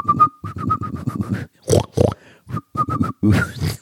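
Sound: pig grunting and oinking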